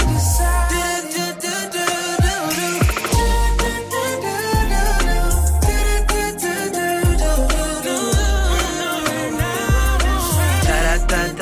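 An R&B song plays loudly and continuously, with a steady thumping bass beat, layered synths and sung melodic lines carrying over a smooth, rhythmic groove.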